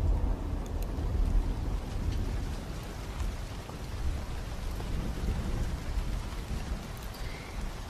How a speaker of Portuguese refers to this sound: Perceba que o céu está escuro. Está escuro porque uma tempestade está se aproximando.